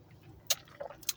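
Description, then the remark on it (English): A few quiet wet slurps of someone sipping beer, with two short sharp sips and a softer gulp between them, and no talking. “Let me let me take a little sip of my brewski real quick.”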